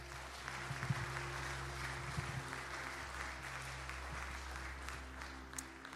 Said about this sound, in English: Can you give Jesus a hand clap of praise?